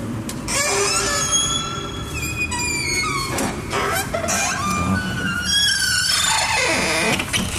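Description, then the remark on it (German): A door leading outside creaks open with a long, loud squeal, its high pitched screeches sliding up and down over several seconds, with no one speaking. “So, jetzt wisst ihr auch Bescheid und damit zurück zu quietschenden Türen.”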